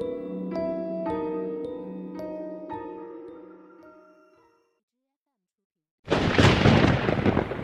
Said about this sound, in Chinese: 一道闪电撕开了黑暗中的沉闷，大雨骤然落下，淅淅沥沥的模糊了他的视野。